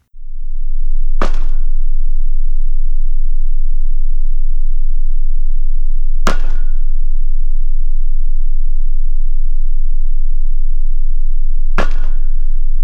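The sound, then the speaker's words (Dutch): Pile driving during construction of an offshore wind farm: a heavy hammer drives piles many metres in diameter into the seabed, three heavy, booming strikes at slow, even intervals about five seconds apart, each ringing out briefly over a constant low rumble. “Wel, we horen eh, ja, het geluid van de constructie van een windmolenpark namelijk het eh, heien van eh, ja, palenvak met een doorsnede van ja, vele meters, die met een zware hamer in de zeebodem worden geslagen.”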